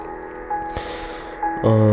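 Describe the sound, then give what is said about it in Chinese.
Soft background music with steady sustained tones and a couple of gentle new notes entering, swelling into a fuller, louder low chord near the end; no one speaks. “然后，呃，现在大家听到的这个背景音乐呢”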